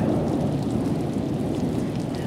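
Steady, heavy rain pours down with a deep rumble of thunder rolling underneath, a dense and continuous storm wash with no voices present.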